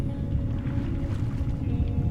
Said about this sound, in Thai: เสียงของคลื่นใต้ทะเลที่คุณได้ยิน จริงๆแล้วมันคือเสียงลมของพายุที่กำลังพัดผ่าน ผสมกับเสียงน้ำที่อยู่ในถ้ำ